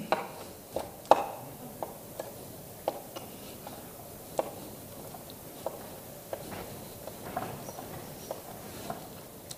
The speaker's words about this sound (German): So, schneiden das in kleine Würfel.